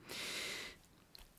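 A single sneeze: a sharp, breathy, hissing burst lasting just over half a second, then near silence with a faint click afterward. No one speaks.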